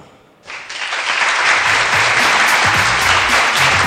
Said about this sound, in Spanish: Al final digo, Solo el intentarlo ya merece. un aplauso para marque